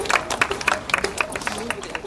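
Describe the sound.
A crowd at the top of the Ozeaneum in Stralsund applauds the penguin keeper steadily, dense overlapping handclaps forming a bright, crackling patter at moderate loudness, with a faint murmur of voices underneath.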